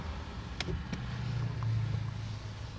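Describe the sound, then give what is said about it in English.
A car window winds down with a steady low electric motor whine lasting a couple of seconds, preceded by two short clicks, over a quiet idling-car background, while the car waits at red traffic lights. No one speaks. “So wind the window down.”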